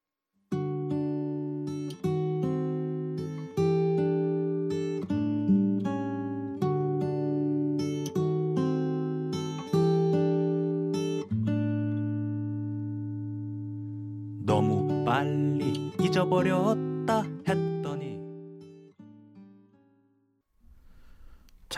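An instrumental stretch of a Korean indie rock song, with steady, repeated chords struck in a loping rhythm, a busier burst of playing near the end, then a fade to near silence.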